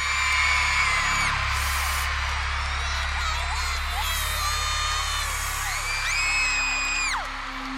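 A young concert crowd screams and cheers continuously, with many high-pitched shrieks and whoops rising and falling over a dense, loud roar of excited voices.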